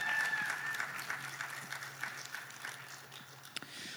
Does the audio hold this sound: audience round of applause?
yes